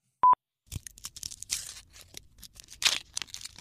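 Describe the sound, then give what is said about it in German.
A short high beep, then a few seconds of crackly tearing and crinkling, like foil and paper wrapping being ripped open, with bursts of sharper rustle amid softer crunching. “das erste klingt wie das Öffnen von Staniol und Papierpapier. Ah, ja, genau, genau. Das erste ist aufreißen.”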